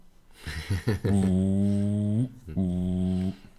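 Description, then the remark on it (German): A voice imitates a departing bus: a few short puffing bursts, then two long, steady droning hums with a brief pause between, fairly loud, with no words spoken. “Das, das Geräusch eines abfahrenden Busses machen.”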